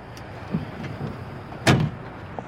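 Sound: car being parked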